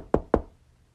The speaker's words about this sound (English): So Jesus knocks on the door,